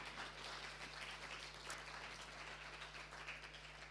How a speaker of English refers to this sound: Folks here familiar with the International Women's Space? Can we give a large, amazing round of applause for the International Women's Space?